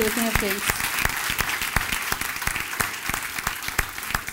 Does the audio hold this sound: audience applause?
yes